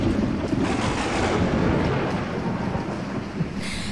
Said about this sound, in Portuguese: Mas pouco tempo depois da viagem se iniciar, o vento começou a soprar, a soprar bem forte e levantou-se num instante uma grande tempestade.